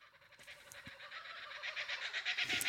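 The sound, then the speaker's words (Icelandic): A kookaburra call: a rapid, rhythmic run of harsh, raucous cackling notes that builds steadily louder toward the end, with no voices present. “Þetta er uh, kokkabura.”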